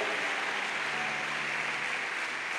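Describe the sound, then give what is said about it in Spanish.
Steady, dense applause from an audience, given to Christ Jesus: a continuous wash of many hands clapping at an even loudness throughout, with no voices standing out. “Dale un fuerte y un gran aplauso a Cristo Jesús.”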